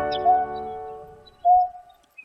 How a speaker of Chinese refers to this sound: 而刚刚那是一只母的彩鷸。因为每当她想交男朋友的时候，就会发出刚刚的叫声，就好像在唱好听的歌，吸引粉丝过来找她哦。